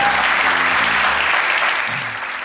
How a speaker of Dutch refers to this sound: Eh, ik zou heel graag een applaus willen voor Rudy Truvé en Maro Pavlos. Dank je